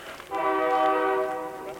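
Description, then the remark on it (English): The horn of a train passing through the town of Rugby sounds one long, steady blast that starts abruptly and holds at full strength, loud, with a faint rumble underneath and no talking. “Trains roll through here all the time.”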